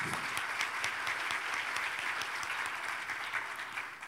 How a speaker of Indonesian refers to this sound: Haleluya. Berikan tepuk tangan dulu bagi Tuhan Yesus.